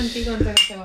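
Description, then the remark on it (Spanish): A single bright clink of glasses touching in a toast, with a short ringing tail, over a low murmur of voices. “Salud. Una salud de nuevo.”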